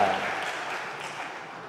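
A steady wash of clapping from a group thanking a participant who has just answered questions about their baptism, dense and even for under two seconds, fading slightly at the end.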